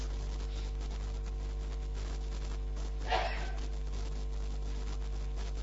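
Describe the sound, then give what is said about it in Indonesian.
A single short, breathy sneeze bursts out against a low steady hum, with no talking. “Yarhamukallah.”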